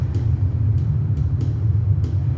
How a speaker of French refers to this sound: Bruit d'avion.